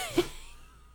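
A dog named Jethro sneezes once, a short, sharp burst of breathy noise that fades quickly into quiet room tone. There is no talking.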